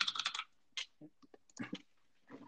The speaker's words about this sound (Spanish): tu, hermoso tecleo.